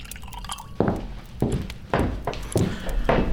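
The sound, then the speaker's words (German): Cognac poured into a glass in several short glugging bursts, fairly clear, with brief pauses between pours and no talking. “Cognac darf ich Sie mit einem guten Tropfen in unserer Stadt willkommen heißen.”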